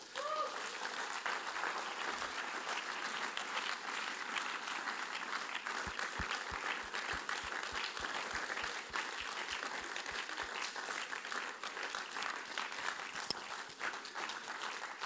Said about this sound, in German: kommen doch bitte auf die Bühne und wir geben ihnen logischerweise einen mega warmen Applaus.